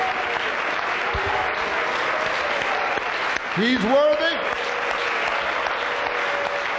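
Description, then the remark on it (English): A church audience claps steadily in worship, praising the Lord, a dense sustained patter of many hands, while a man's voice rises over it with a brief melodic, sung-sounding phrase partway through. “Your hands make a joyful noise unto the Lord.”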